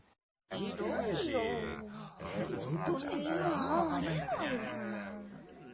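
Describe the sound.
Someone grumbles and complains loudly out of displeasure and dissatisfaction in a low, rumbling voice, a steady stream of discontented muttering with rising and falling pitch, fairly loud, starting after a short silence.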